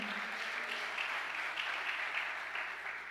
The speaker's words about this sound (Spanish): ¿Cuántos están? Dale otro aplauso fuerte.